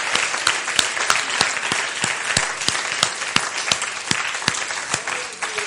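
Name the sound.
audience applauding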